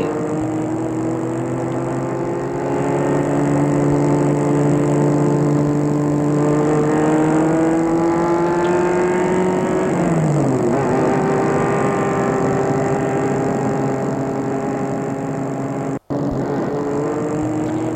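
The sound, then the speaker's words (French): A car engine roars steadily, its pitch sliding downward partway through as the car speeds off, with the motor continuing to drone loudly to the end. No one speaks. “Il reviendra que demain matin et la voiture file.”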